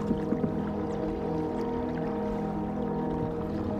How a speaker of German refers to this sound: Nur das Bächlein plätschert noch immer sanft vor sich hin. Der Rest hüllt sich in Stille.